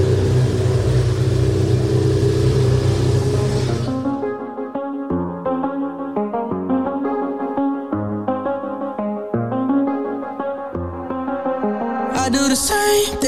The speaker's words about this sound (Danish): det bliver en god overgang her med en eller anden lastbil, motorcykel kørende i baggrunden.